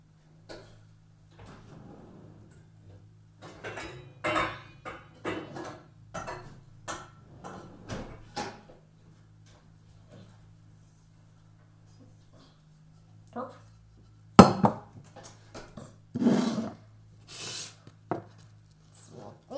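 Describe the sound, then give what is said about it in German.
Scattered kitchen clatter and clicks as a cooking pot is fetched, then a sharp metallic clank as it is set down, followed by a few more bumps and rattles over a steady low hum. “Ich hole mal kurz einen Topf.”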